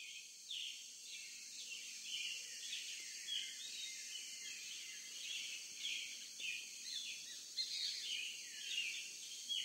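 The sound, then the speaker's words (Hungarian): European robin song: a steady stream of thin, high warbling phrases rising and falling without pause, over a faint hiss of insects or background noise. No voices. “a kerti madarak közül az angolok őt szeretik legjobban, az angolok, hát ha nem is címer madara, de egyik kedvenc madara, a vörösbegy, őrá is érvényes, hogy bogyókat, magvakat is elfogyaszt télen persze.”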